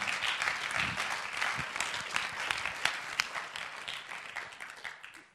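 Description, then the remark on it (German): An audience applauds steadily for several seconds, a dense wash of many hands clapping that holds fairly even before thinning out slightly toward the end. “Geben wir dir doch noch mal einen Applaus.”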